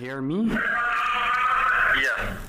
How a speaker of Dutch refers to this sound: Ehm, ja, allereerst, ehm, ja, er was heel veel lawaai op. Uh, je hoorde andere gevangenen schreeuwen.